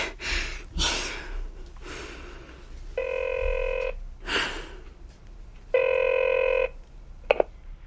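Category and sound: signal or alarm, telephone ringing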